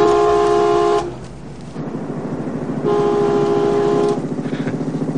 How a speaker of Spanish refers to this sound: Le saludan pitando. Al sonar la sirena, a ver si nos contestan.